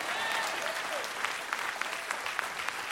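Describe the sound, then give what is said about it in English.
An audience applauds steadily, a dense wash of many hands clapping at a moderate level with a few sharper individual claps standing out, and no voices. “I, if you're not clapping, I don't know if it is you or not.”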